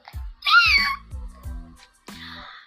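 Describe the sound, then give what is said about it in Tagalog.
A voice imitates a cat's meow during a recording session of animal sounds, with a rising-falling whine, followed by a few shorter vocal bursts, fairly loud. “Okay, so umpisahan na natin ang pagbibigay ng tunog sa mga iba't ibang hayop. Kagaya ng number 1, pusa.”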